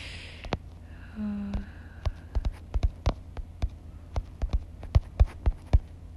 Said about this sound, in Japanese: でもこれソシャゲの音ゲーしてるんやけどこのこの画面を叩いてる音ってとことこうるさいかもしれんな